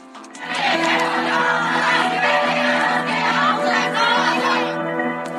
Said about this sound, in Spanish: El fin de semana colectivos feministas se manifestaron en varias partes del país.